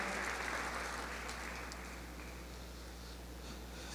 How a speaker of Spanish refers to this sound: Dele un aplauso a Jesús y ocupe su lugar, por favor.